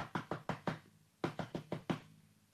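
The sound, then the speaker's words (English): Two quick bursts of knocking on a door by people who have come to it, each a run of four or five sharp raps, fairly loud, separated by a brief pause. “Ah, and sure enough, those people came and they knocked on the door.”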